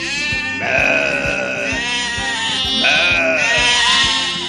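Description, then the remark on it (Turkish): Sheep bleat loudly in two long, wavering calls, one after the other, as they are being taken outside, over a steady low rhythmic thumping in the background. “koyunları dışarı çıkaracağız.”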